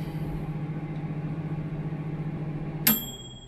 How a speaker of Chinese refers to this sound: 打开微波炉，热一点麦片当早餐。